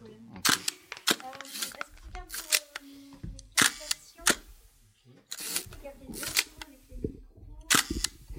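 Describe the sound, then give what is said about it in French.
Crisp shutter clicks from a 6x6 cm medium-format film camera fire repeatedly at an irregular pace, roughly ten in all, with faint murmuring voices and soft handling noises between them. “Alors ah, ça, c'est le bruit du, de l'appareil.”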